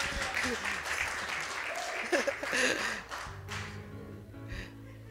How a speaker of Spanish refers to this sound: No, no, no. Un aplauso a los hermanos sexy. Un aplauso, por favor.